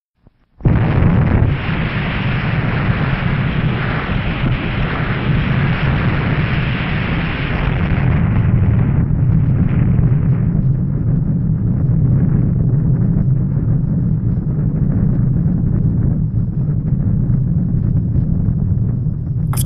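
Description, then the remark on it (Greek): A sudden, massive blast from the first atomic bomb tested underwater, a US nuclear test 27 metres below the sea at Bikini Atoll, erupts into a sustained, roaring rumble that persists at full loudness, dense low-frequency thunder rolling on for nearly twenty seconds without any voices. “έτσι επέλεξα να ακούσουμε την πυρηνική δοκιμή των ΗΠΑ στην Ατόλη Μπικίνη που είναι η πρώτη ατομική βόμβα η οποία δοκιμάστηκε 27 μέτρα κάτω από τη θάλασσα.”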